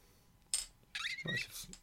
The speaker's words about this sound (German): Jetzt mache ich auch mal meine Wasserflasche auf, die quietscht immer so schön. Das ist schön für einen Podcast, Achtung.